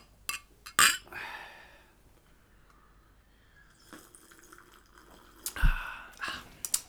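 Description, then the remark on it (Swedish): Glasses clink together in a toast, a couple of sharp, bright taps separated by several seconds of quiet room sound with soft handling noises. “skål och välkomna.”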